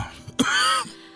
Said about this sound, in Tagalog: huwag mo nang pigilan niyang ubo mo.